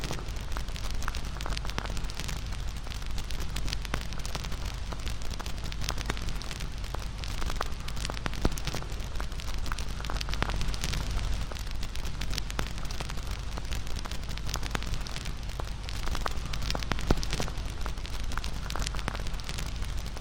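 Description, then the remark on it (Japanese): A wood fire crackles steadily, scattered sharp pops and snaps over a constant soft hiss and low rumble of flames, with no voices. “燃える炎とパチパチ弾ける焚き木の音に耳を傾けながら”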